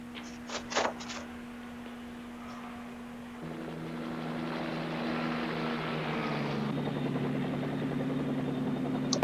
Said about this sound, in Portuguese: E essa volta de helicóptero vai ficar barata.